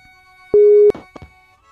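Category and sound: signal or alarm, skype call ringing tone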